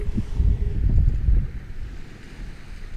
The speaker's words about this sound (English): Taking some more ocean, guys.